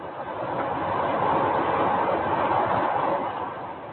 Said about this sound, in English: Our train is now travelling through Siberia towards Novosibirsk.